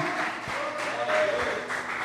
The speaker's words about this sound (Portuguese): Você pode aplaudir aplaudir bem forte ao Senhor.